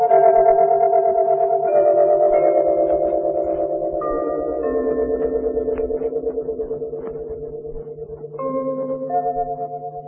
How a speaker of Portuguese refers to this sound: e de repente ela sintonizando a Rádio Nacional do Rio e entrava aquele prefixo. Tum, tum, tum, tum, tum, tum andando. Aí o cara, essas são as, as, as emissoras da Rádio Nacional do Rio de Janeiro.